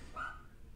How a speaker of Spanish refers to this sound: si escuchan mi perro, no sé si lo escuchan, está ladrando.